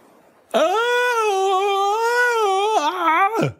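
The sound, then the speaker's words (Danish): A man, a father out fishing in a boat, lets out one long, loud scream of shock, on its own, holding a high strained pitch for about three seconds before wavering and cutting off abruptly. “skriger faren lige pludselig meget, meget højt både Freja og Malte får et kæmpe chok og er straks vågne”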